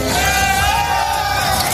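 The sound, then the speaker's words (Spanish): A loud crowd at a tractor protest roars and yells together as one of the protesting tractors overturns a truck carrying Spanish fruit and vegetables, with sustained shouts and whoops rising and falling in pitch over a continuous wall of noise for nearly two seconds. “Así suena el momento en el que uno de los tractores que participan en la protesta vuelca un camión con frutas y hortalizas españolas.”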